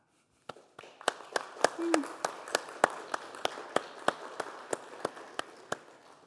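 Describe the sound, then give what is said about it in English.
An audience claps for fathers, steadily, with sharp individual claps standing out in a quick, fairly even rhythm over a softer wash of scattered clapping. A brief vocal sound briefly rises over it early on. “And if you have a father, please clap for them.”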